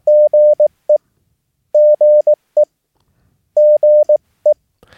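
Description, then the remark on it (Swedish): A steady, fairly loud Morse code tone keys out the same short pattern three times: two long dashes and a dot, a brief pause, then a single dot, spelling GE, the abbreviation for Good Evening, with quiet gaps between repeats. “Good Evening är förkortas bara GE.”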